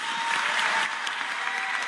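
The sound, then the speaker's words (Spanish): An audience at a state congress applauds steadily after a vote approving a pension fund, many hands clapping in a dense, continuous crackle that stays fairly loud throughout, with no voices standing out. “Un aplauso a todos ustedes.”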